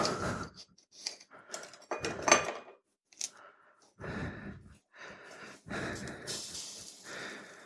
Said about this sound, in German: Zischt und blubbert. Ich bin jetzt hier noch am Herd. Hier ist ein Elektroherd.